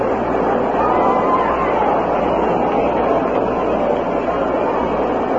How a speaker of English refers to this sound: The crowd, you hear them reacting in the background. They are listening to the waning moments of the Rams game.